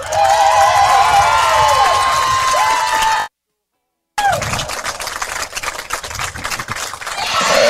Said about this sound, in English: Let's hear One more round of applause for both teams, the regional finalists, the Lady Cardinals from Coldwater, and the regional champions, the Wildcats from Mattawan.